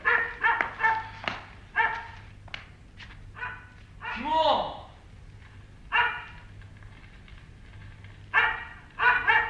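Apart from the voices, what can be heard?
dog barking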